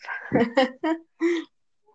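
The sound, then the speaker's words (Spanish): A drawn-out, breathy yawn with a voiced groan that breaks into a few short, sighing bursts, fading to quiet at the end. “Ay, perdón, es que me estoy bostezando.”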